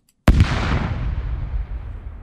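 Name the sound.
explosion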